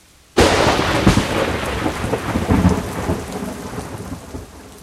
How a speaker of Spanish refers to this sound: La tormenta seguía.